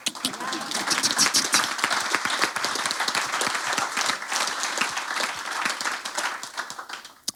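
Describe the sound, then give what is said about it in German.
A crowd applauds steadily, dense clapping mixed with sharp knocking taps, sustained and fairly loud throughout, with no talking over it. “Ich höre es schon klopfen in Henna.”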